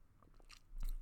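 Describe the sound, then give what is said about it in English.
Someone takes a quick drink: a few soft, wet mouth clicks followed by a low, muffled gulp, quiet overall and with no one talking. “So um, I'm going to take a quick drink.”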